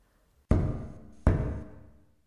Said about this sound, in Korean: 참을 수 없게 된 나는 가볍게 벽을 두드렸다.